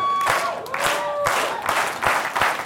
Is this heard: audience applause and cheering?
yes